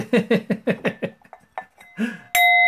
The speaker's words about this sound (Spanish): Cuenco de despedida.